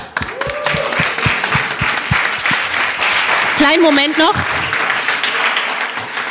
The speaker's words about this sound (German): Also hat Dieses Team hat gewonnen. Uhu. Erstmal ein Applaus.